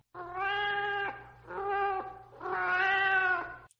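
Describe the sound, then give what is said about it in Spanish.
A cat in a dark alley meows three times in a row, long drawn-out wailing cries with a slight pause between each, loud, over a faint low hum. “El maullar de un gato que provenía del oscuro callejón llamó mi atención.”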